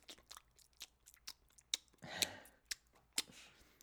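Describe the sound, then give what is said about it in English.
Wet, smacking open-mouth gum chewing with the tongue and back molars, an irregular run of soft clicks and squelches punctuated by several sharper, louder smacks, with no talking. “Like you chew it with your tongue and your back molars.”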